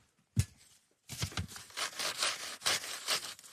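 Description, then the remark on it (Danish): A whole computer keyboard is wiped down: one sharp knock, a brief pause, then a run of brisk, rasping rubbing strokes in an uneven rhythm, fairly loud, with no voices. “du tager lige hele tastaturet. Ja. Du giver det lige en omgang.”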